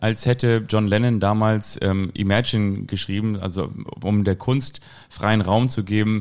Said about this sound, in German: Und ihr hört den Hall, glaube ich, im Hintergrund. Oder liegt das daran, dass wir das hier ein bisschen zu laut gemacht haben? Äh, hörst du das auch? Es ist schon halliger als sonst,